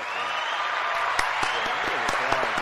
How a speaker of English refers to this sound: Look, I want to just give a round of applause